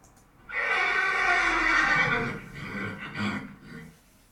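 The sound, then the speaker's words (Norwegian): A horse lets out a loud whinny, starting high and shrill and then breaking into a fluttering, descending neigh that fades after a few seconds. There is no talking. “Da har vi funnet hesten som vi skal starte med.”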